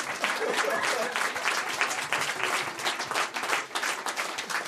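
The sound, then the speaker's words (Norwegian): An audience applauds steadily, a dense crackle of many hands clapping at once that holds a fairly even level throughout, with no voices standing out above it. “Jeg vet ikke hva dere klapper for, men dere er sikkert bare kjempehøflige.”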